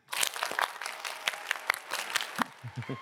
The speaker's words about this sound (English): Clap 10 times.